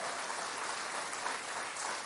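An audience applauds the Gospel of Christ during a sermon, a dense, even wash of many hands clapping at once with no pauses and no voices standing out.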